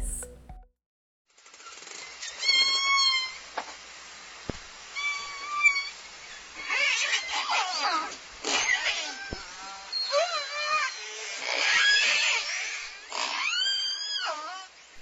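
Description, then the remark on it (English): Orca whale calls, a series of high, whistling and squealing tones with rising and falling pitch, repeating over the whole stretch against a soft hiss of underwater background noise. “Isn't the sound of the orcas just delightful. Ah, it's kind of musical.”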